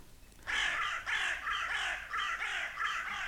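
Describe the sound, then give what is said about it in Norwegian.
A pair of crows landing in a tree on a farm caw harshly in a quick, steady series of about six calls, loud, with no talking. “liten par kråker lander i et tre og kommenterer det som skjer på gården.”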